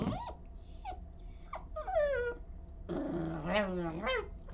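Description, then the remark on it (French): A dog on a boat in the middle of the sea lets out a series of short whines and yips, then a longer, rumbling growl that rises and falls, over a low steady background hum. “je pense qu'il ne sait pas encore ce qu'il attend là-bas, mais je pense qu'il y a très peu de chiens qui ont cette chance de faire ce, qu'il va faire en fait.”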